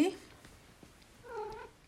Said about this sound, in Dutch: Oh, die kat. die kat maakt geluid. Ehm, die wil ook heel graag aandacht, denk ik probeer nu op de stoel te springen.